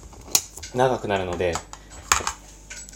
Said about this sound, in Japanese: 今、トマト缶開けてます。